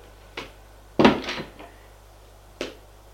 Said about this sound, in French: J'ai dit, allons dans ma chambre. Ils y vont. Gilles ouvre la porte, le fait entrer.